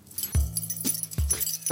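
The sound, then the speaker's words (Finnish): A bunch of keys jangles in a few quick, bright bursts, each with a soft thump as they shift in a hand while being handed over. No one speaks. “Anna avaimet, niin homma hoituu.”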